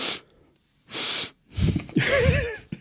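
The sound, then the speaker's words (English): A person performs loud, exaggerated sniffing: two sharp, airy sniffs with pauses between, then a longer run of snorting, voiced sniffs and breathy noises. “sniffing that bullshit.”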